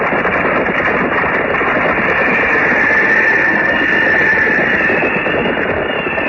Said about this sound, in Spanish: Luego, por las tortuosas callejuelas unos jinetes avanzaban. Los cascos de sus caballos resonaban extrañamente al golpear en el enlosado y repercutían en ecos que se confundían con el viento.